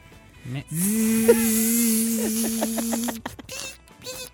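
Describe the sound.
A person imitates a buzzing mosquito with a steady, nasal, droning hum for about two and a half seconds. It ends in a quick stuttering pulse, followed by a few short breathy sounds.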